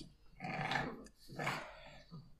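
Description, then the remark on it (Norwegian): A pug named Dagotto grunts and breathes noisily in two rough, snorting bursts about a second apart, moderately loud, with no talking, while lying on a downhill slope. “en, en, mops som ligger nedover nedoverbakke og tror han får puste dødgodt av det.”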